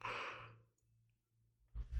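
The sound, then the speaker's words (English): A single breathy yawn trails off into a long sighing exhale, followed by near silence and then a brief rustle of breath at the end. No one speaks. “I yawned, yeah.”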